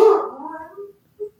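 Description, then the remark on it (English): A dog lets out a loud bark that trails into a drawn-out whine, followed by two brief, softer whimpers after short pauses. “hi, that's my dog.”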